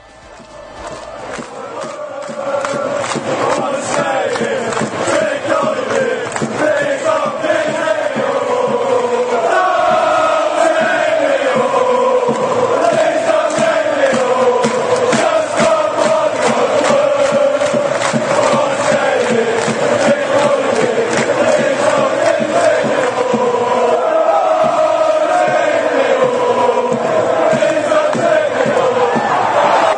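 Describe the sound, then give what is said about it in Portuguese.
A huge crowd of England football fans sings the chant 'don't take me home' in unison, a loud, continuous melodic roar with a steady rhythm that carries on for the whole stretch without letting up. “Vamos ver a torcida da Inglaterra pedindo para não nos leve embora para casa.”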